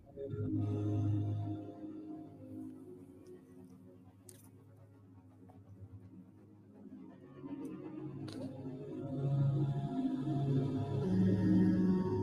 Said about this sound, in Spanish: Escuchemos la música, entreguémonos al sonido.